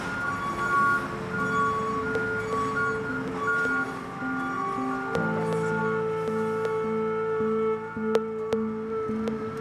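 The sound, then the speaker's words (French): A garbage truck's compactor, switched on by its operator and clearing out the rubbish, runs steadily with a loud droning hydraulic whine and engine hum, its pitch shifting midway, while occasional sharp metallic clanks ring out. “Le tasseur, je le tourne. Ça continue d'enlever la merde.”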